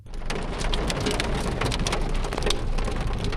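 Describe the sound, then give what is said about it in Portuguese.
A sudden hailstorm pounds down in a loud, continuous roar, with dense sharp clattering impacts throughout and no voices. “A chuva de granizo chegou de repente, obrigando todo mundo a buscar abrigo prejuízo para os motoristas que foram pegos de surpresa no trânsito.”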